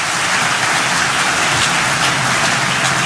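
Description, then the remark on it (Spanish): A crowd applauds the community members who worked on the project, many hands clapping in a dense, even wash of sound that holds at the same loudness for a few seconds with no voices on top. “Un aplauso a todos los comunitarios que han trabajado con nosotros.”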